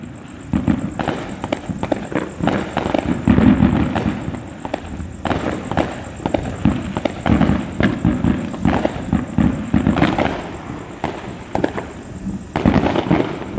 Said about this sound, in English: the fireworks displays that were flying through Los Angeles in a city where fireworks are illegal. The sky was lit with illegal private fireworks. Just to give you an idea, just listen to this little clip.